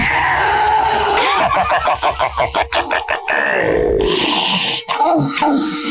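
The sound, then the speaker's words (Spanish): An eerie, unearthly moan rises and wavers for several seconds, loud and tonal, breaking into a rapid stuttering pulse midway before sliding downward and trailing into a strained, groaning tail. “Su respuesta fue de nuevo aquel quejido extraño y sobrenatural que le hizo enchinarse de la piel.”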